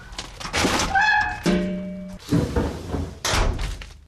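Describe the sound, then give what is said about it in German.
The plastic lid of an organic waste bin is handled and shut, with a few dull thunks and slams mixed with a brief creaking squeal, and no voices. “Ja, ihr habt's gehört, das war natürlich die Biotonne.”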